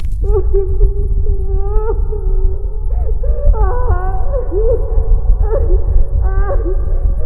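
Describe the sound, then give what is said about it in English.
A woman wails and sobs in drawn-out, rising and falling moans that repeat steadily over a constant low rumble, fairly loud with no other talking, coming from inside a store. “The crying continues. It seems to be coming from inside the store.”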